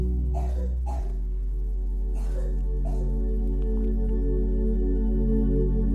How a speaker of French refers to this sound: Je suis désolé pour la petite toux de mon fils.